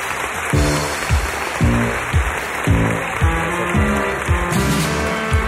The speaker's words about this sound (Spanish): Un aplauso para los dos, por favor.